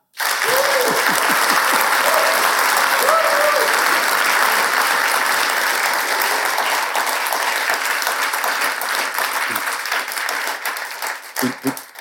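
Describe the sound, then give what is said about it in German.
Sustained, unprompted applause from a live audience at a live show recording at the Bühne im Hof in St. Pölten, a dense wash of many hands clapping at a steady level for most of the twelve seconds, with a few cheers or whoops early on before it thins out at the end. “Bei OF-Aufzeichnungen muss man das vorher immer proben und den Leuten sagen, wisst ihr, wann es klatschen müsst, aber sie haben das von sich aus gemacht.”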